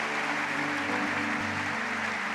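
An audience applauds in a steady, dense wash of clapping that holds evenly throughout, with a low sustained hum underneath and no voices standing out.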